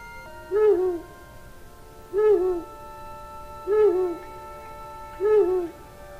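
An owl hooting sound effect: four hoots at an even, unhurried pace, each call a short wavering note, heard clearly over a faint steady hum with no voices.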